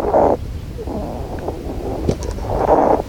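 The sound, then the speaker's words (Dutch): A hedgehog, disturbed as branches around its resting spot are being cleared away, snuffles and huffs in noisy bursts, with a low rumbling growl running between them and a sharp click near the end. No one speaks. “Ehm, een egel die had eh, flink aan het snuiven en aan het blazen is en aan het grommen.”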